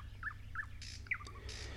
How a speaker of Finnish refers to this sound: Meillä pesivä satakieli on tämän lajiparin itäinen versio.